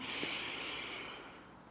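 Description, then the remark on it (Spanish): A long, deep breath drawn in through the nose, airy, starting strong and slowly tapering off over a couple of seconds, with no talking. “Vas a dar una respiración bien profunda”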